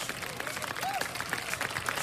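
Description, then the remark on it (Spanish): A burst of applause from a group for the sponsor, Las Bolas by Julio, a michelada seller, many hands clapping in a dense, steady patter throughout, with a brief rising-and-falling whoop heard midway. “¡Aplausos!”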